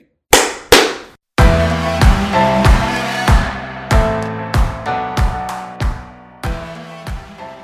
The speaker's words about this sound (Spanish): Eh, estamos listos. Ya podemos aplaudir. Ya, ya grabamos.